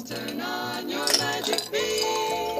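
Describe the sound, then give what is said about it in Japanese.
Ice cubes clink against a glass in a few bright, ringing taps during a toast, over a steady background of sustained tones; no one speaks. “この氷の音がはい乾杯”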